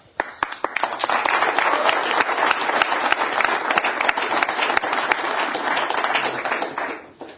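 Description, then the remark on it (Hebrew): Sustained audience applause for a band on a live broadcast program, a dense wash of many hands clapping at a steady, loud level for several seconds before fading out at the end, with no voices standing out. “עוד פעם מחיאות כפיים”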